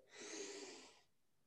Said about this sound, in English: So simple, like a breathing exercise. I learned from one of my guests, like something as simple as breathing in and then it sounds weird, but the humming, kind of like the um, but keeping your mouth closed.